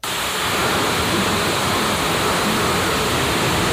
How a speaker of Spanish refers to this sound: ¿Sabes lo que es eso, Pablito? Tremendo aguacero.